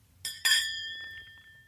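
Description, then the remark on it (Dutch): Glasses clink together in a toast, two quick bright taps, followed by a clear ringing tone that slowly fades over a faint low background hum. “Jongens, proost. Cheers.”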